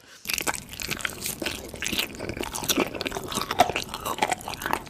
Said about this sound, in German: ich erkläre es jetzt mal total banal, aber im Prinzip ist es einfach nur Essensgeräusche. Also wirklich sehr, sehr intensive, klare, ähm, fast schon gruselige Essensgeräusche.